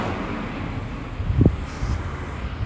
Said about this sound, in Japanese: やばいまた車の音がちょっとうるさいかもしれない